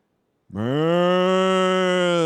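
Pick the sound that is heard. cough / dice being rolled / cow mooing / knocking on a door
cow mooing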